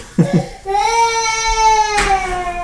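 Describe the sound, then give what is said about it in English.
A baby cries: two short whimpering sobs, then one long, sustained wail that rises slightly in pitch, broken by a brief harsh burst near the end. “then we have full, full baby in the background.”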